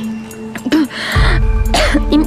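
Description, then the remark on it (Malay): A person coughs up blood, coughing hard and harshly in repeated rough bursts, with strained, gasping breaths between the fits. “kau batuk berdarah ni.”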